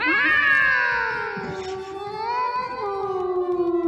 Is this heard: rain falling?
no